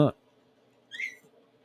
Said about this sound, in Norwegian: Den lyden dere hørte nå, hvis dere syns lyden var litt plagsom, det er at eh, Det er de små valpene.